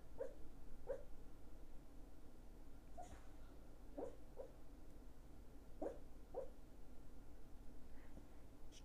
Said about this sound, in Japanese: ワンちゃんの寝言聞こえるかな